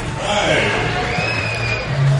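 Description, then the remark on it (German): A fight crowd cheers and shouts for fighter Masen Gürke between rounds, a steady, dense wash of many voices with scattered whoops and a low rumble, swelling slightly toward the end. “Masen Gürke lässt sich nochmal vom Publikum feiern, absolut zu Recht, denn er zeigt hier einen beherzten Kampf.”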